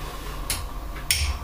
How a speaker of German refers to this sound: Weil das ist ein großes Glas. Ein großes Glas. So. Jetzt brauche ich natürlich noch einen langen Löffel. Da haben wir auch einen langen Löffel. Jetzt rühren.